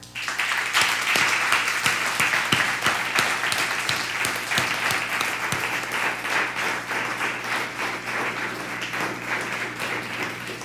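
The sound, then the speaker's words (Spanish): Sustained applause from a church audience during a broadcast service, given to God the Father, a dense wash of many hands clapping steadily for about ten seconds, loud at the start and tapering slightly, with a few sharper individual claps standing out. “¿Por qué no le damos un fuerte aplauso a papá?”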